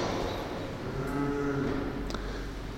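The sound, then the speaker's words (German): A baby lets out a drawn-out, wailing shout that echoes through a church during a sermon, with soft background murmur and no one speaking. “Der da rumschreit, den habe ich getauft, der hört mich so gerne reden.”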